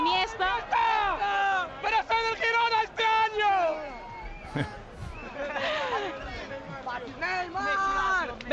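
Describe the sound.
A stadium crowd chants in loud, rhythmic vocal phrases, many voices rising and falling together in repeated bursts, with brief dips and a rough murmur of the crowd between chants.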